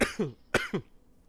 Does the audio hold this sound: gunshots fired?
no